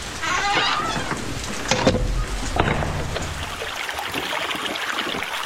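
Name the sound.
babbling stream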